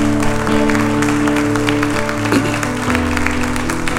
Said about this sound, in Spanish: Alguien puede dar un aplauso al que vive, al que reina para siempre.